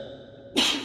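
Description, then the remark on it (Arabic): A single sharp sneeze bursts out after a quiet moment, loud, with a hissy, breathy spray that lingers briefly to the end. “رحمك الله”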